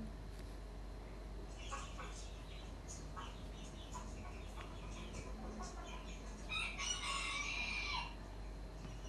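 A serama chicken clucks in short bursts over steady background hum, then lets out a louder, strained crow near the end, with faint voices in the background.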